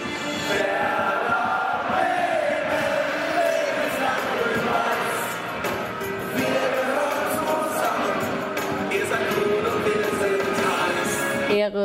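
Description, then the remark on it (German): A dense crowd of Werder Bremen football ultras standing, singing, clapping, cursing and waving flags. It is a continuous loud wall of voices with sung tones rising through it and sharp claps scattered across the din. “Sie singen und klatschen, fluchen und schwenken Fahnen.”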